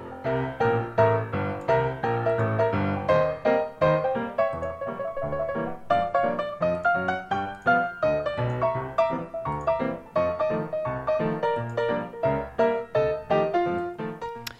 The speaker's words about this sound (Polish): No, to ja puszczę na chwilę muzyczkę.